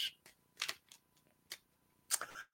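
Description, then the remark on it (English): A deck of tarot cards being shuffled, heard as a handful of crisp, papery bursts at irregular intervals, fairly quiet, with no voices. “So it's the tarot card of the week, as you can see below. So I'm just going to give a shuffle and then bring the show to an end.”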